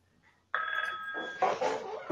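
A telephone rings loudly and abruptly after a moment of near silence, its bright, sustained bell tone holding steady before blending into a busier, clattering ring.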